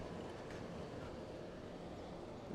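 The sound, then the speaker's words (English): A B Line light-rail train rolls by heading inbound to Park Street, a steady low rumble with a broad rushing rattle that holds at an even, moderately loud level throughout, with no one speaking. “yeah, that's the uh, there's the B Line train going uh, going inbound to uh, to Park Street.”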